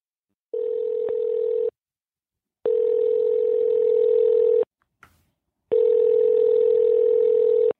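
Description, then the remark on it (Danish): A telephone ringing tone on an international call to Murray McMurray Hatchery, a chicken hatchery in Iowa, USA: three long, steady, even-pitched buzzing tones separated by silent pauses, with a faint click in one gap and no voices. “Jeg er ved at prøve at ringe til et amerikansk grueri i delstaten Iowa for at se, om jeg kan bestille et kul babykyllinger.”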